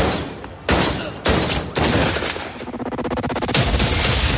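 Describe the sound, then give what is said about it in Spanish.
Loud pistol gunshots from a Browning 9 mm pistol crack out one by one at irregular intervals, followed by a quicker rattling series of shots and a final burst, with no voices; the shooter is Ağca, firing at the pontiff in St. Peter's Square on 13 May 1981. “Eran las 5 y 19 horas del 13 de mayo de 1981, cuando Azka desempuñó con una velocidad pasmosa su pistola Browning de 9 milímetros.”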